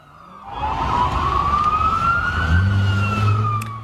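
Sirens of several police patrol cars wail loudly and steadily while chasing a Cayman through a Bunnings car park just north of Newcastle, a rising tone sweeping over heavy engine and traffic rumble, with no voices present.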